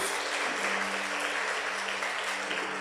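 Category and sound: crowd, audience applauding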